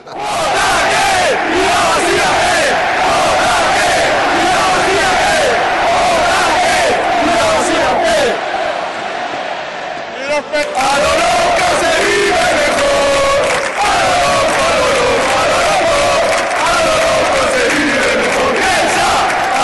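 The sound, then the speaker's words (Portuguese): A large crowd of Athletic Club football supporters, the organized supporters' group R Norte, chants together in a stadium, a loud sustained mass of voices with rhythmic swells, briefly dipping around the middle before surging back. “foi incorporada por esse grupo e mais tarde pela torcida R Norte, né? Que é a organizada do Athletic Clube. Vamos ouvir?”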